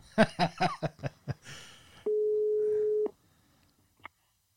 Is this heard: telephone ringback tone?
yes